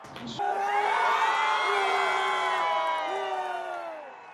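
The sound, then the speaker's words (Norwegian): A large home crowd in the streets of Kabul, Afghanistan, cheers loudly and continuously over the national team's first ever cricket World Cup win. Many overlapping voices whoop and shout in sustained rising tones, a dense roar that swells and then slowly fades. “Hjemmepublikum i Kabuls gater jubler over VM-debutantenes innsats.”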